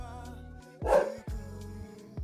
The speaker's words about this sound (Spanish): Y el perrito también. Sí, el perrito se está expresando. No, mi perro que está ladrando porque tembló recién acá.